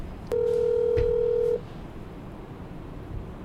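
A phone ringback tone sounds once: a steady, loud, mid-pitched beep lasting just over a second, followed by quiet background hiss with no talking.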